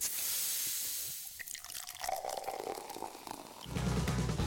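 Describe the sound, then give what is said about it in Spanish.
A sharp hiss as a bottle of 7-Up lemon-lime soda is opened, then it pours into a glass with a rising tone and steady fizzing. It is fairly loud, ending in a low bubbling gurgle. “Escuchar el siguiente sonido puede ocasionar unas ganas incontrolables de destapar una 7-Up.”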